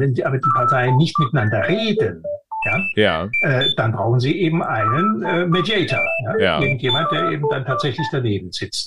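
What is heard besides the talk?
telephone ringing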